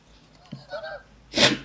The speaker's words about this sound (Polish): No ale jak tu nie kichać? Otóż, e, przepraszam bardzo,